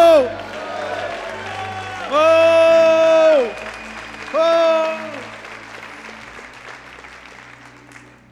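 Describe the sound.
An audience claps and cheers in worship of the Lord, a steady, dense wash of applause, while loud sustained shouts of "oh" rise over it in two bursts before the clapping thins out.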